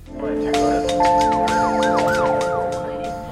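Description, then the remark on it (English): Emergency vehicle sirens in a Kansas City neighborhood at nearly 3 a.m. on a Sunday wail loudly and steadily, their pitch sweeping up and down in repeated rising-falling arcs, layered with sustained tones and some sharp higher bursts on top. “Sirens tore into the silence of a Kansas City neighborhood early the morning of September 9th.”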